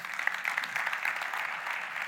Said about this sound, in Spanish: Pueden dar un aplauso al Señor, por favor.